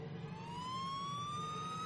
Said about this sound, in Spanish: Escucho el aullido de una ambulancia en el exterior.